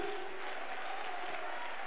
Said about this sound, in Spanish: ¿Cuántos alaban al Señor? Amén, gloria a Dios para siempre. Vamos a palmas de alabanza para el Señor, amén.